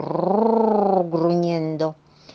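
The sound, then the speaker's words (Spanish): A voice imitates the growling, rumbling of a big empty belly with a drawn-out, throaty groan lasting about two seconds, fairly loud, with a brief break before it trails off. “Porque si tiene realmente mucha hambre, mientras busca por aquí y por allá, por adentro y por afuera, por arriba y por abajo y por toda la ciudad, quizás oigas su gran barriga vacía que hace rugiendo”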